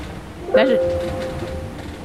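A boat's watermaker (desalinator) hums steadily while producing fresh water, with a sharp mechanical whine that kicks in and holds for about a second over a constant low machinery rumble. The boat is near Cape Verde in hot, humid weather.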